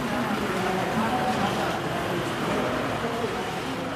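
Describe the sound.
Steady outdoor ambience at Brig (Brieg) train station in Valais in April 2021, on arrival: a continuous wash of traffic and rail noise with faint indistinct voices in the background, evenly loud throughout.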